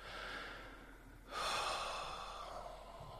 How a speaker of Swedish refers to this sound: En sak som jag tycker är jävligt skön det är när man, om man tar ett djupt andetag att när man andas ut att man så här njuter av avslappningen som kommer.